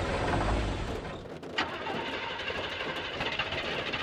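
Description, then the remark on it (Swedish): A car engine cranks repeatedly without catching, a steady churning whir with a brief dip and sputter partway through, with no voices. “Vad är det för fel på motorn?”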